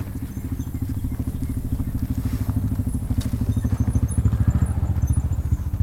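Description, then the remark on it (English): A low, throbbing engine idles and rumbles steadily throughout, the rapid pulsing putter of a four-wheel ATV that a couple drives over on muddy ground by the water's edge, growing slightly louder toward the end with faint crackles above. “A couple drives over in a four wheel ATV to see what we're up to, just as my son is placing his well chosen bunch of flowers onto the mud.”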